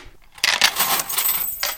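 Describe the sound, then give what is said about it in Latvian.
Counting beads, used as a sound prop in a radio theatre studio, are rolled once and clatter in a bright, dense rattle of small hard clicks for about a second, fairly loud, with no voices. “Kino buļbuļs vajadzēja vienreiz ripināt. Skaitāmie kauliņi”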